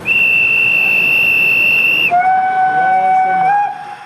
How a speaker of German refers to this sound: Diese Eisenbahn, die ist noch kleiner. Es ist eine Modelleisenbahn.